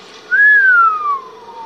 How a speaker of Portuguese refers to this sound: em casa fazia muito frio, pois nada tinham como um abrigo, exceto um telhado onde o vento assobiava